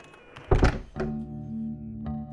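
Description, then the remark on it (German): A door is pushed shut in the ARD Radiotatort radio drama with a loud, heavy thump, followed by a softer knock and a quieter click a moment later, while a steady low hum continues underneath. “Mach Tür zu.”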